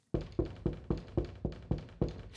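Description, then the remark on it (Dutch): Knocking on a temple door in a quick, steady series of about eight firm raps, evenly spaced, with no voices. “Hij kwam aan bij de tempel en klopte aan. Hij klopte nog eens aan hij klopte nog een derde keer.”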